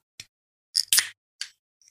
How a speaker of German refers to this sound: Falls ihr nur drei Dosen ploppen gehört habt